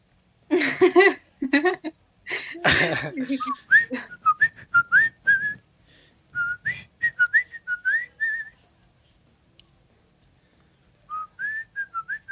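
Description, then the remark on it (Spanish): Someone whistles a light, breezy elevator-music tune in short, clear melodic phrases, with pauses between them, after a burst of voice and laughter-like sounds at the start. “Ahorita quedaría una musiquita de elevador. no, es como que la esté chiflando ni nada, eh, no, es como que esté aquí yo esforzándome”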